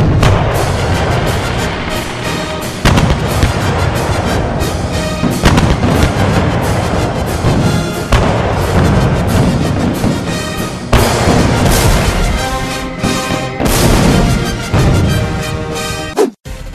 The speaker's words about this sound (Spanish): la explosión que destruye Mobius.